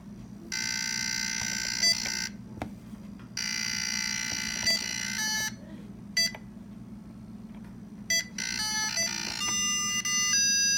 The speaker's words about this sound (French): Euh, il faut pas mal d'imagination et il faut aussi supporter les sons électroniques assez horribles du jeu, qui est d'ailleurs plutôt difficile parce que les tirs de laser sont franchement rapides.